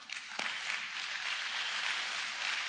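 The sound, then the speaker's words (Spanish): Audience applause: a steady wash of many hands clapping, dense and even throughout, with no voices standing out above it. “Miren nuestra hermana de las señas. Denle un aplauso.”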